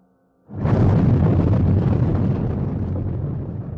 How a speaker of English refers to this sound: A small earthquake rocked them.